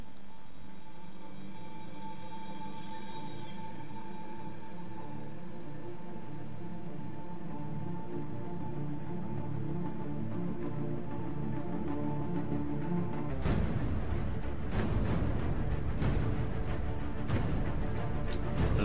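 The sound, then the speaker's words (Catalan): Grandiose orchestral score from the Batman film The Dark Knight: a sustained, brooding low drone builds steadily, then bursts into loud, pounding percussion and full orchestral swells for the final stretch. No voices. “Caballero Oscuro, que també doncs, eh, tenia aquesta musicalitat així grandiloquent i potent d'un gran superheroi que vindrà i d'acció i de velocitat, de velocitat.”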